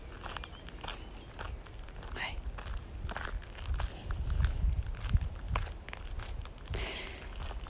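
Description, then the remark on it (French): Steady footsteps crunch over small gravel at a slow walking pace, fairly loud, each step a gritty scrunch with no talking. “Tu peux entendre les petits gravillons sous mes pieds.”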